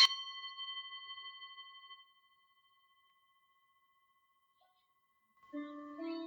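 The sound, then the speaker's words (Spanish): A single meditation gong stroke at the end of a meditation rings out with a clear metallic tone that fades over about two seconds, followed by silence, then a person begins speaking near the end. “Al finalizar la meditación, voy a tocar el gong y a dejar tres minutos de silencio, después de los cuales voy a volver a tocar el gong y terminar el audio.”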